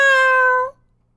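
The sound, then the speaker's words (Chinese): One drawn-out meow, said in a story by the girl Madeline in front of the tiger at the zoo, steady and fairly high-pitched, holding a bright, even tone for under a second before cutting off into silence. “在动物园的老虎面前，马德琳轻轻松松地说：“喵。”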